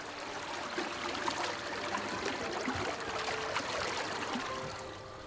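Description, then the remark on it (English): Fast-flowing river water rushes and splashes steadily over wooden steps as it passes under a fir tree, a dense, continuous churning wash that stays even throughout, with no voices. “The sound of the river passing over the wooden steps, steepling the steps as it passes under the fir tree.”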